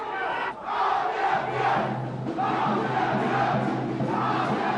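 A large far-right crowd storming the negotiation venue during South Africa's peace negotiations roars and shouts continuously, a dense wall of agitated voices with surging yells, and a steady low hum running underneath for most of the stretch.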